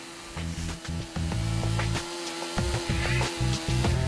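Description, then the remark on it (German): A power tool drones steadily while cutting into wood, its motor pitch shifting as it bites, with occasional sharp knocks and scraping over several seconds. No one speaks. “Axt oder Kettensäge, mit verschiedenen Werkzeugen dürfen sich die Auszubildenden richtig austoben und ihre Ideen umsetzen.”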